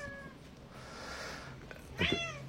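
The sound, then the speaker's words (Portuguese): A cat meows twice to be let in: first a faint, drawn-out mew, then after a pause a sharper, louder meow, with a low steady hum in the background. “Tem uma pessoa aqui miando para poder entrar na fala do Dharma.”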